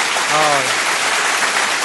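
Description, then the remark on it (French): Dense, steady applause for a radio host marking 10 years of his show fills the whole stretch at a loud, even level, with a brief voiced exclamation rising over it near the start, then cutting off abruptly. “Donc, euh, je pense que je mérite des applaudissements.”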